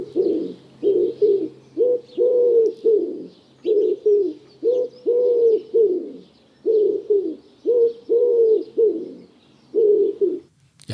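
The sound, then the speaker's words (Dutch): A wood pigeon coos steadily and clearly, repeating its soft, husky five-note phrase in a rhythmic series with brief pauses between. No one speaks. “De houtduif.”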